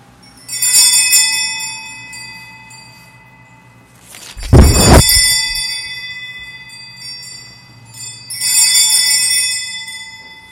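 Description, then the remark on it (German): Church bells ring out in slow, separated peals during the Eucharistic blessing at a church service, their bright overtones lingering between strikes, with a deep heavy thud midway. No voices are heard. “Während die Glocken läuten, darf ich in den eucharistischen Segen spenden.”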